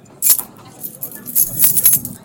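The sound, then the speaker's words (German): Keys jangle in several bright metallic bursts, a sharp clink at first and then a longer rattle as room keys are shaken and handed over, over a soft background hum. “Ich gebe Ihnen hier die Schlüssel.”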